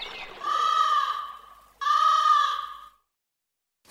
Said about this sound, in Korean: 자, 그러면 저희는 로고 듣고 어, 무치 뉴스 브리핑으로 돌아오겠습니다.